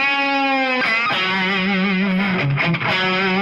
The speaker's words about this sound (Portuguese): O som do … que eu gosto tá mais nessa guitarra aqui. Essa aqui eu, tipo, faço. Assim.